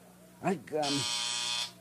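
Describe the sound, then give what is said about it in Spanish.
A man lets out a brief vocal groan, then a loud, steady electric hospital nurse call buzzer sounds for about a second before cutting off abruptly. “este mugroso timbre parece que no suena nada.”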